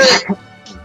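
A single sharp sneeze bursts out at the very start, loud and breathy, then quickly fades into a faint, quiet tail.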